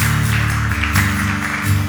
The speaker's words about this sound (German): Lasst uns noch mal feiern, einen Applaus geben. Einmal auch für die Leute, die sich entschieden haben an diesem Adventssonntag.